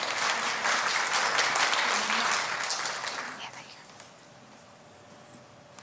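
An audience breaks into steady, dense applause and cheering for a woman coming up to read the scripture, with many hands clapping together, holding loud for about three seconds before thinning out and fading to quiet with a few stray sounds.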